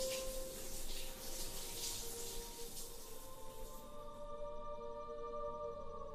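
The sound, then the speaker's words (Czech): A woman takes a shower: a steady hiss of shower water spraying, fairly loud, fading away after a few seconds and leaving a low humming drone from the pipes. “Dala jsem si sprchu asi tak na hoďku, dokud se moje srdeční frekvence neustálila.”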